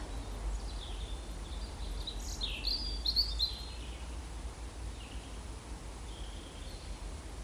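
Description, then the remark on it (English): A tiny nest-building songbird sings a few quick, high trilling phrases, fairly faint, over a steady hiss of outdoor background noise in the woods in the evening. No one speaks. “if that is a male, regardless of how tired he is, from all the building work, he's still going to sing into the night”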